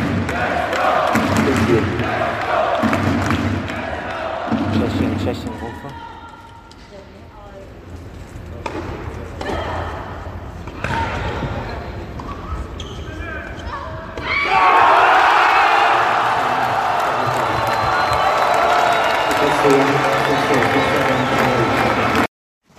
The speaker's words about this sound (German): Gut, das war jetzt unschwer am Jubel zu erkennen, wie die Partie ausgegangen ist.